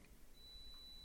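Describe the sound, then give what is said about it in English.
A single high-pitched electronic beep, like a reversing alarm, comes in partway through and holds steady to the end, fairly faint over a low background hum, with no voices. “That's the sound of her backing up and, uh, and paying the money.”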